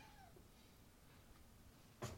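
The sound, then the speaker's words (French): A cat gives one short, faint meow with a falling pitch right at the start, then quiet room noise follows, broken by a brief soft thump near the end. “Oh, le chat.”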